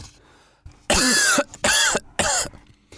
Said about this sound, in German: Plötzlich hörte man ein scharfes, trockenes Husten und alles schaute sich um.